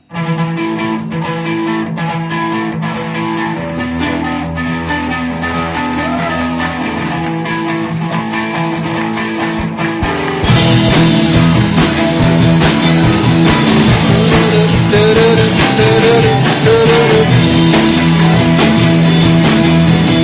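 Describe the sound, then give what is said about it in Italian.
A live band improvises a melodic, Chinese-style song, starting with a lighter, steady groove before the full band crashes in louder halfway through with driving drums and gritty, distorted instruments. “è una roba per gli amanti di genere cineserie eh, quindi la faccio.”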